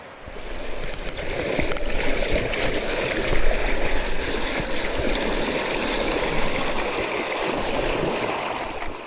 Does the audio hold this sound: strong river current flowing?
yes